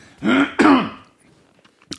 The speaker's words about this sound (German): Unglaublich, muss man gerade husten.